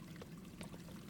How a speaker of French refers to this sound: Il devait y avoir une rivière ici.